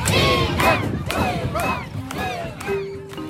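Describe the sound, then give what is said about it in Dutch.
A crowd of teenagers on a swinging pirate-ship ride shouts the word "freedom" in unison, repeated about every half second, loud, with a dense crowd roar underneath. “En op een gegeven moment hoor ik dat al die jongere eh, tieners voornamelijk die in dat schip zitten, die schreeuwen freedom.”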